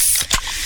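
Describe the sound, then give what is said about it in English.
A quick sharp pop as a can of Pepsi is cracked open, followed by a steady bright fizzing hiss of carbonation, clear with no talking. “Oh, yeah, that's the sound of a freshly opened fizz filled Pepsi.”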